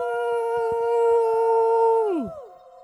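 A single long howl holds a steady, high, harmonically rich pitch for about two seconds, then slides sharply downward and fades out. Faint clicking ticks sit underneath, and no one speaks.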